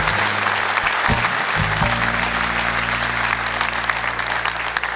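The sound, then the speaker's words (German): Studio audience applause: dense, steady clapping from many hands fills all five seconds at a loud, even level, with a low sustained hum underneath and no talking. “Gut, dass die Muttertagsgrüße nach dem Applaus kam, sonst wäre es hier noch lauter geworden.”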